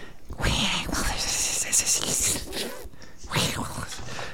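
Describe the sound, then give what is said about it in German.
A voice imitates the hiss of two really large snakes rising from bushes: a long, breathy hiss of a couple of seconds, a short pause, then a second hiss, moderately loud. “Und ähm, aus den Sträuchern erheben sich die Köpfe von zwei wirklich großen Schlangen. Und ihr hört nur ein.”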